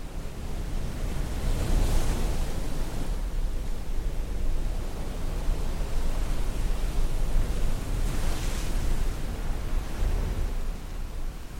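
A seaside soundscape of the Irish coast from the MyNoise website: ocean waves wash steadily against a shore, a continuous broad rushing hiss with two louder surges breaking through, one early and one later. No voices, just the sea filling the scene.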